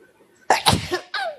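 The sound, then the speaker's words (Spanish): A single sharp, explosive sneeze bursts out, followed by a brief breathy aftersound, with quiet background before it. “Salud. Salud.”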